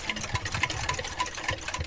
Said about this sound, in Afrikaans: Die geluid van meer as 200 pols en sakhorlosies en wekkers in 'n vertoonkas in sy studeerkamer.